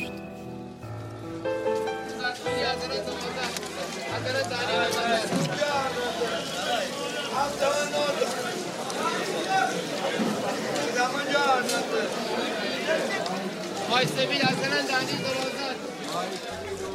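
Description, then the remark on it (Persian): A busy fish market crowd in Rasht, with vendors calling out and many voices overlapping into a steady hubbub that stays loud throughout with no quiet moments. “این صدای بازار ماهی فروش های رشت بود”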